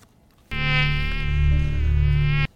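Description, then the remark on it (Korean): A steady, high-pitched mosquito whine drones continuously for about two seconds, fairly loud, starting and stopping abruptly with no other sounds around it. “이게 무슨 소리냐면요. 모기 소리예요.”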